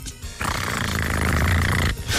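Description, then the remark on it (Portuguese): A man's voice imitates a cat purring: a steady, low, rumbling buzz lasting over a second, loud and continuous, with a brief breathy break near the end. “E eu tenho de disfarçar porque estou a ronronar nessa altura.”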